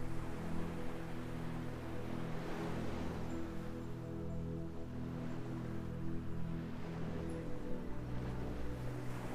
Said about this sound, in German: Und stell dir nun einmal vor, wie du dich am Strand an einem Meer befindest. Du kannst das Rauschen der Wellen hören. Höre einmal genau hin.